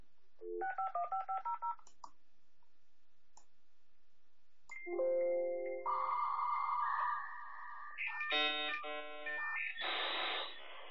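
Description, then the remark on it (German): A quick series of telephone keypad tones dials out, followed by a few clicks, then a dial-up modem's loud handshake of shifting whistles, warbling tones and harsh static bursts as it establishes an internet connection. “Und den Ton, den habe ich euch mal mitgebracht, wie sich das anhörte.”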